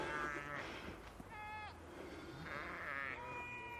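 Several sheep bleat one after another, their wavering cries overlapping against a steady outdoor background rumble; the bleats are moderately loud, some longer and quavering.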